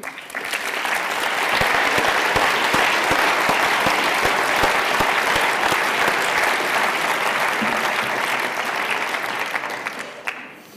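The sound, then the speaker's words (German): Sustained audience applause for the ÖDP party and its citizens' initiative in Munich: dense, crackling clapping from many hands that swells quickly, holds steady and loud for several seconds, then tapers off near the end. “Und ich glaube, wir können der ÖDP an der Stelle mal für dieses Bürgerbegehren eine gute Hand geben und einen großen Applaus.”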